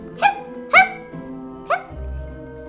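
A voice imitates hiccups: three short, sharp, pitched 'hic' sounds, the first two quick together and the third after a pause, followed by a low hum.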